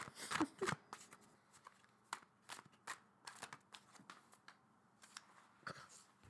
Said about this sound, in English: okay, I was shuffling for way, way longer than you just heard, and um, all these chunks of cards kept popping out.